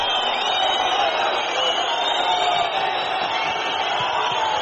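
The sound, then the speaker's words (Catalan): A large arena crowd boos the referees after they award two points, a steady, sustained roar of many voices that holds at a fairly even loudness throughout, with no single voice standing out. “I ara l'esbroncada.”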